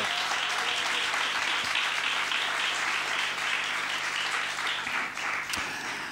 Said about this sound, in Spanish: Por favor, otro aplauso para esta música.